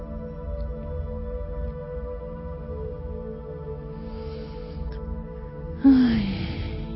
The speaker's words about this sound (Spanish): y vamos a bajar la música. Vamos a pararla.